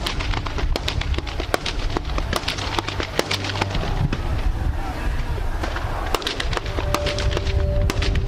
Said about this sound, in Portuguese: horrível, gente, que acontece nesse momento na penitenciária de Alcaçuz, aqui em Nízia Floresta. Muitos tiros, muitos tiros